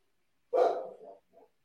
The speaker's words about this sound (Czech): Kdo tam má psa? Náš pes.